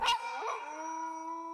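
A wolf howls in one long, sustained tone that rises slightly, then holds steady and clear, following a brief noisy burst at the start. No one speaks.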